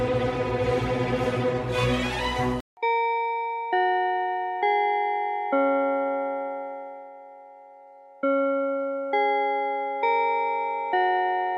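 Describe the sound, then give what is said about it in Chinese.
A short burst of music gives way to a bell chime: two phrases of four clear, ringing tones, each fading, with a long pause after the first phrase. No voices. “好，等下相关的细节，钟声过后进入今天的科技早自习喽。”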